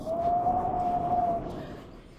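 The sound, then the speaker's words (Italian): Wind howls in the evening with a thin, steady whistling tone over a broad rushing roar, then the whistle drops away and the rumbling gust fades softly over a couple of seconds. “Ecco il vento, sentite? Gli piace giocare stasera.”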